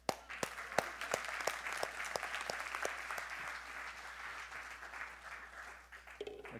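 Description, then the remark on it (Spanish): An audience applauds steadily for several seconds, a dense wash of many hands clapping with a few sharp, louder claps standing out early on, then gradually tapering off. “Dale un aplauso.”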